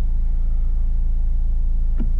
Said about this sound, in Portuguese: o trânsito está um bocado. um bocado absurdo, para o meu gosto.